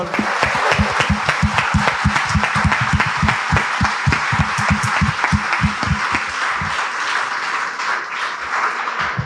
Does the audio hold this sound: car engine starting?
no